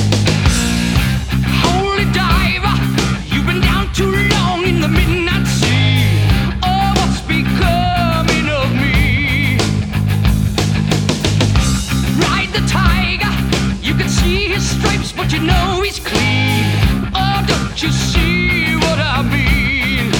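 A classic rock song plays loud and steady for the whole stretch, with a full band and what sounds like a lead vocal line riding over driving rhythm.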